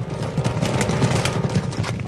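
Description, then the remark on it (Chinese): A herd of giraffes, zebras and antelopes flees from a lion, many hooves drumming in a dense, rapid, overlapping patter of low thuds that stays steady and loud throughout, with no voices. “狮子一来，长颈鹿、斑马、羚羊都赶快跑啦。”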